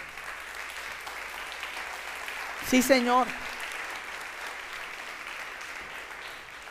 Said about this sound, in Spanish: Lo que, lo que Gomer no sabía, eso merece un aplauso.